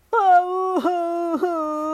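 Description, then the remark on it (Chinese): A storyteller's voice imitates a lion crying loudly, the cry coming from across the sea: one sustained wailing tone, steady in pitch, broken by two brief sobbing catches before the wail carries on. “小熊跟小企鹅说再见，朝着哭声传来的方向前进。是谁在哭？”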